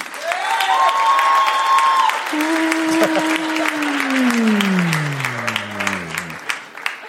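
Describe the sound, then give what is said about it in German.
An audience applauds a participant after the second question, the steady applause loud and dense throughout, while sustained musical tones slide slowly downward in pitch over it before fading near the end. “Die und jetzt euer Applaus”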